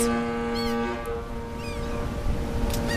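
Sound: ship's horn blowing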